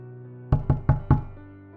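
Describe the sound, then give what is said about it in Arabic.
Four heavy, evenly spaced thuds on wood, loud, footsteps of something huge climbing wooden entrance stairs, each with a deep booming resonance that fades into a brief low hum. “شيء ضخم ابتدى يطلع على سلالم المدخل الخشب”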